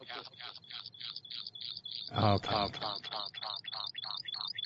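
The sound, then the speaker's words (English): Speech comes through doubled and smeared, an echo from an unmuted second connection to a call, with repeated choppy bursts and a louder burst of overlapping talk in the middle. “echo”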